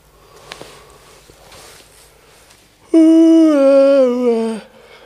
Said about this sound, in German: Ja, wenn du jetzt noch gähnst, ne, dann sind unsere Hörer schon eingeschlafen, wenn du nichts mehr sagst.